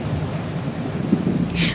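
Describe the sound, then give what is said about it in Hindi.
Heavy rain pours steadily while a deep rumble of thunder rolls underneath, swelling toward a sharper crack near the end. No voices are heard. “बिजली कड़कने पर मैंने उस रोशनी में जो देखा”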